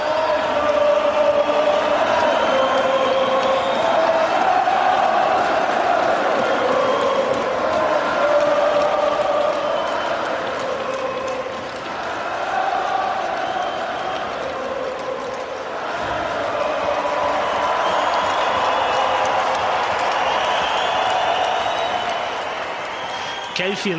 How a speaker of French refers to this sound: Euh, en 2013, quand vous avez joué contre les Canadiens, que tu as fait tes trois buts. Et que là, la foule s'est mise à chanter.